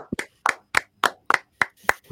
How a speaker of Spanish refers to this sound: Un aplauso. Un aplauso grabado que va a sonar ahora mismo.